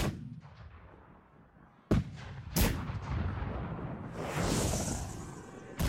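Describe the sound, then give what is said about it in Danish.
Artillery bombardment of Copenhagen by the English, beginning 2 September 1807: English incendiary bombs and shells raining down on the city. Sharp, heavy booms strike at intervals over a dense, rumbling roar, with a hissing whoosh rising partway through and another blast closing the sequence. “september 1807 begynder de engelske brandbomber og granater at regne ned over københavnerne i et skrigende inferno, der varer flere dage i træk.”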